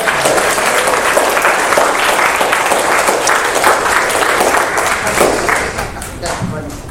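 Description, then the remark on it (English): Loud, steady applause from an audience, a dense wash of many hands clapping that holds for several seconds before tapering slightly at the end. “Okay, give them a big round of applause.”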